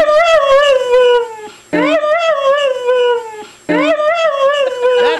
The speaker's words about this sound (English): Mishka the Husky telling her humans that she loves them